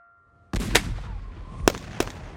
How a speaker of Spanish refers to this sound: Los disparos parecían venir de distintos lugares. Apenas entre la neblina se veían algunas chispas de fuego que hacían saltar las pistolas.